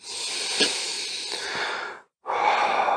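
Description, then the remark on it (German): A person breathes loudly while slowly coming back from a guided visualization: a long, loud breath drawn in steadily for about two seconds, a brief pause, then a strong airy exhale, with no talking. “Du beginnst laut zu atmen,”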